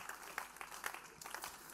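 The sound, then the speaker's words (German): An audience applauds with a steady, dense patter of many hands clapping, a few sharper claps standing out. It sounds fairly soft, filling the whole short moment without any talking. “Danke vielmals, geben wir einen Applaus.”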